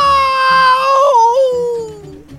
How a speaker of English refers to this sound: That's when we heard the scream.